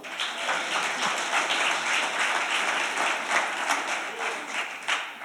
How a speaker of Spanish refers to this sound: Amén. Si va a aplaudir, aplauda.